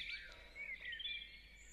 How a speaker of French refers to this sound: Néanmoins, à l'ombre de ces murs moussus, sous les êtres de forêt de soigne, si l'on y prête attention, au milieu des chants des oiseaux,